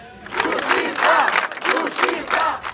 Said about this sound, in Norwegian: Rettferdighet, rettferdighet, roper folk taktfast under Agathas begravelse.